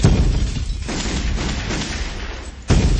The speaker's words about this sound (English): Gunshot in your face.